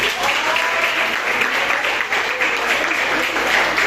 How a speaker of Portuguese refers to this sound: Você pode aplaudir a Jesus?